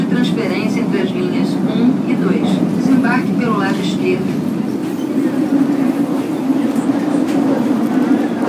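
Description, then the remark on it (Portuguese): A Rio de Janeiro metro train rumbles steadily as it travels between stations toward Cinelândia station, a loud, continuous low roar filling the car, with muffled voices briefly audible over the noise. “Próxima estação, Cinelândia.”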